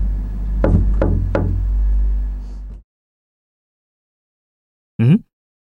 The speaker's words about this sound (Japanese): ノックされた。開けた冷蔵庫の扉を反対側からノックされた。